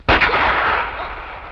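A single loud gunshot, fired while a scene is being filmed, cracks out sharply and then rolls away in a long, booming tail that fades gradually over more than a second. No voices are heard.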